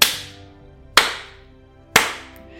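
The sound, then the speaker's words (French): Slow, rhythmic hand clapping: three sharp, loud claps spaced evenly about a second apart, each trailing off in a brief ringing decay, with no voices. “Et là, on a tout le public qui doucement euh, commence à taper dans ses mains, là, comme ça.”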